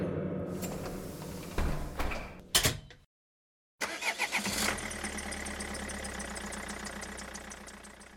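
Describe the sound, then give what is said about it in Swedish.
A bus door thuds shut, then after a brief silence a diesel engine cranks and catches, settling into a steady, loud rumbling idle with a rhythmic mechanical clatter. “Nå, vi tar och, och startar bussen och, och går och letar efter den här skinkan.”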